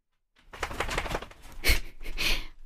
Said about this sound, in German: Jetzt hat sich hier gerade mein Hund geschüttelt. Ich weiß nicht, ob du das gehört hast.